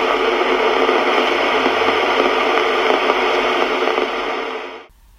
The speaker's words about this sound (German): Weißes Rauschen Germanium Transistor DDR.